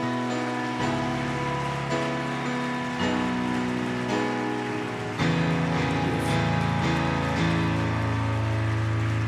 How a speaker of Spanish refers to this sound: Iglesia, dale un fuerte aplauso al Señor.